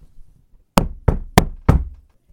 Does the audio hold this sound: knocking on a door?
yes